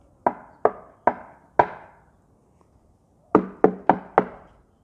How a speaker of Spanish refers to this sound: Está Naamán, llega a la casa de Eliseo y toca la puerta.